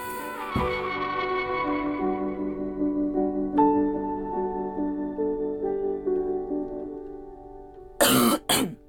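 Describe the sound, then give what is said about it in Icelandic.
Sustained musical tones fade out over several seconds, then a short, harsh cough erupts near the end in two quick loud bursts. “Góður hósti hérna.”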